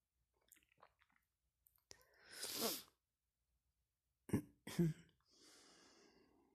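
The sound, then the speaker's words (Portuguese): Calm, fluid breathing during a relaxation exercise: an audible breath swells in through the nose and fades, followed by a couple of sharp, abrupt bursts and then a long, soft airy exhale in an otherwise quiet setting. “A respiração está fluida, tranquila.”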